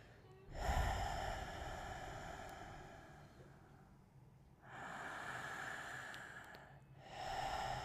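Slow, deep breaths drawn in and released during a guided breathing exercise, fairly loud, with long noisy inhales and exhales in an unhurried rhythm, about three breath cycles and no talking.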